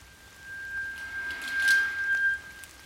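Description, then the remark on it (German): Rain patters steadily on a surface, a soft hiss that swells slightly midway, with a faint steady high tone humming underneath. No voices. “Die Regenzeit beginnt.”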